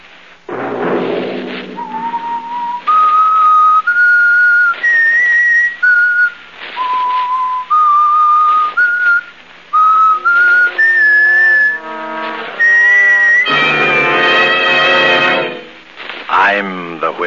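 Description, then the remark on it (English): A clear, close whistled melody of sustained notes stepping up and down in pitch, backed by a soft musical accompaniment that swells into a fuller, brassy chord near the end. “Have you heard The Whistler?”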